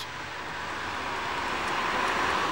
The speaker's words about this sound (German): Diese verlangt, dass das Mikrofon eineinhalb Meter vom Boden und exakt siebeneinhalb Meter weg vom vorbeifahrenden Fahrzeug aufgestellt sein muss. Erster Test. Auto los. Wie laut ist ein Auto durchschnittlicher Größe bei Tempo 50?